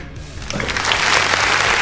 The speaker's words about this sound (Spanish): Ponle aplausos, ponle aplausos.